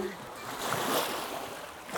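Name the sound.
sea waves washing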